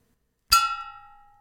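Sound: bell rung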